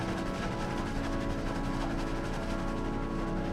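A steady, low rumbling drone of a train running along its rails on the way to Amsterdam, constant and fairly loud with a dense mechanical hum and no voices throughout.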